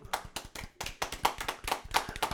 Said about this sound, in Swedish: Applåder!